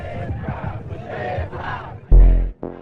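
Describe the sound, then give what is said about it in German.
A large crowd at a 1970 gay rights march in the United States chants the slogan "Say it loud, gay and proud" in loud rhythmic unison, voices rising and falling in repeated bursts, followed by a sudden strong low-pitched blare near the end. “Nee, halt auch, was da skandiert wurde. Say it loud, gay and proud.”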